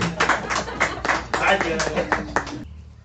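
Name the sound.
audience clapping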